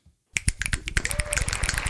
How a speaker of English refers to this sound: Finger snaps and hand claps.